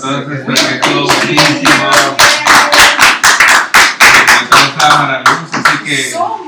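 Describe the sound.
Steady, rhythmic clapping from an audience, with sharp claps arriving in a quick regular beat for several seconds while voices murmur underneath.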